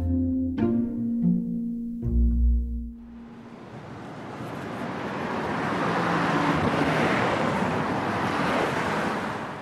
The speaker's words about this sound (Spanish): Al llegar me sorprende el tráfico, pero sobre todo que se ven muchísimos edificios todavía en obras.